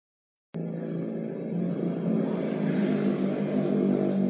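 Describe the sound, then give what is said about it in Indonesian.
A loud motorcycle with a throaty, modified open exhaust starts abruptly and roars, its engine note building and revving steadily louder over a few seconds, with no talking. “Apa mbak sepeda motor itu ngapet brong-brongan anjing.”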